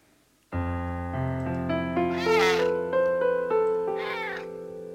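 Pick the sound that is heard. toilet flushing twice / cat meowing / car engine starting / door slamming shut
cat meowing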